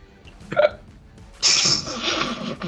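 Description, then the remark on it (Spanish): A short catch of breath, then one sudden, loud sneeze that bursts out and trails off in a breathy hiss for about a second. Nobody talks. “Y estornudar.”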